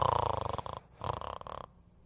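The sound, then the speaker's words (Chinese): Two rattling snores of a sleeping frog, each under a second long, with a quick fluttering buzz and a short pause between them. They are fairly loud and mid-pitched, with no talking. “可是青蛙小弟还在呼呼大睡。”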